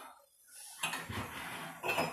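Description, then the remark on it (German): Ceramic cups and dishes clink and knock together in a few irregular bursts while someone makes tea, with a sharp bright clatter near the start and another toward the end, fairly quiet and without any talking. “Ich mache mir noch einen Tee zum Runterkommen. Das ist nicht meine Tasse.”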